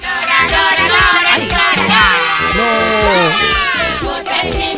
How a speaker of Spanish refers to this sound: es que voy a buscar porque creo que sí que tengo la sintonía de esto. Escuchad.